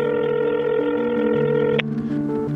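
telephone dial tone

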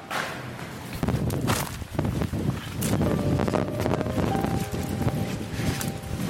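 strong wind blowing outdoors

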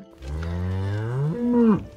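cow mooing

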